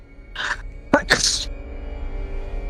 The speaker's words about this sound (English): Sorry, I'm sneezing.